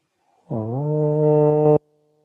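A single deep "Om" mantra chanted aloud by one voice during a heart chakra meditation, a steady, resonant hum held for just over a second after a slight upward glide at the start, then cut off cleanly into silence.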